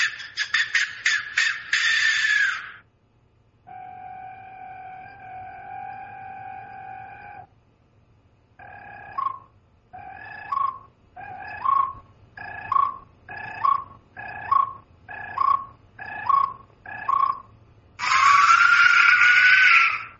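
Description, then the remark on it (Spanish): An Aztec skull-shaped clay death whistle, sounding only by wind through clay, shrieks in harsh, scream-like blasts, holds a steady hollow tone, then gives about nine short rising whoops before a final loud, raspy howl. No one speaks. “que es solo viento a través del barro. Barro con forma de calavera.”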